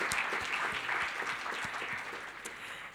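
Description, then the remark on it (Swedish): An audience at a morning worship service applauds steadily for a few seconds after Spanish-language music, a dense, even patter of many hands clapping, with no voices over it. “Ska vi ge en varm applåd till det här härliga spansktalande lejonet av Juda?”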